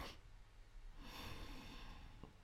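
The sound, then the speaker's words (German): A person imitates a father's light, not-strong snoring: a soft, breathy snort followed by a longer rasping inhale, light and unhurried. “Weil er geschnarcht hat. Aber nicht stark. Sondern weißt du, so ein.”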